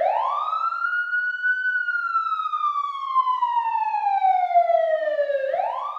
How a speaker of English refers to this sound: So you know what we had to do. Fire up the sirens. Let's go.